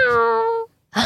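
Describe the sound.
A person imitates a cat's meow with one long, steady, tonal wail that fades out, then a short pause and a breathy burst of noise at the end.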